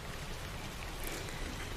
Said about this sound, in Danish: Jeg synes egentlig, vi skal lade regnvejret fortsætte lidt. Det er en beroligende lyd, øh, så vi tager den med os. Og så kan vi jo forestille os, at vi sidder og kigger ud på uværet eller regnvejret, øh, mens vi taler sammen.